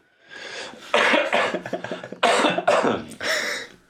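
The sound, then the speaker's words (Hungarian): A fit of harsh, loud coughing, several rough bursts in quick succession with brief wheezy breaths between them, and no talking. “Azt hiszem, meg is van az intro, egy jó köhögés, jöhet a szignál.”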